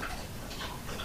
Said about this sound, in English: Excuse the noise in the background. It's a, a guide dog in the house walking around.